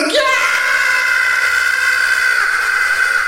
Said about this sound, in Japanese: きゃー悲鳴を上げた。